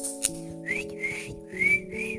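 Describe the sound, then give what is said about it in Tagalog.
A speaker whistles in imitation of someone outside a house calling pigeons: four short, high, rising whistle notes in a loose rhythm, sounding over a steady low droning hum. “Tapos may sumisipols?”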